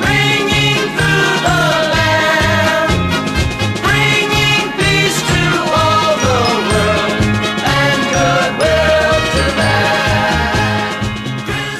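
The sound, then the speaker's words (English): Christmas bells jingle brightly throughout a loud, upbeat musical track with a steady thumping beat, continuing without pause for about twelve seconds and no one talking. “Christmas bells, those Christmas bells”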